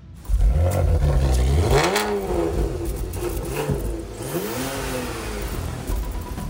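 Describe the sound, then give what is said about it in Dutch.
A car that has stood unused for a while is started outside: the engine turns over and catches, then revs up twice with rising, whining pitch before settling into a rough, steady idle. It is loud, with no talking. “Heeft hij lang niet gelopen, die auto?”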